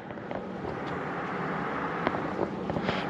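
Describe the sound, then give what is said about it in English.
A small airplane drones overhead, a steady, rushing engine roar that holds for the whole few seconds with faint wind-like hiss and a few soft clicks, no voices. “Oh, here's an airplane.”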